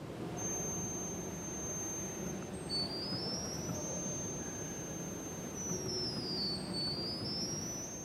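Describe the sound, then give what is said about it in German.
The highest tones of a pipe organ, from its smallest pipes of about 2 centimetres: very high, thin tones sustain and glide between pitches, piercing and whistle-like, over a steady low background rumble, with no one speaking. “Also hier ist nicht gerade das Mikro kaputt, sondern das sind die höchsten Töne.”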